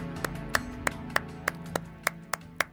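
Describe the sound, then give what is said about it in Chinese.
A single person's slow, steady hand clapping: about nine crisp, evenly spaced claps over a low background hum, with no talking. “接着突然响起一阵拍掌声。”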